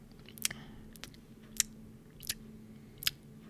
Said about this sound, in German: Also ich habe das Gefühl, egal was für ein Wort sie rausbringt, äh, sie ist ständig am Schmatzen. Vielleicht hat das auch was damit zu tun, dass sie ganz nah an das Mikrofon dran geht und man dadurch sämtliche Mundgeräusche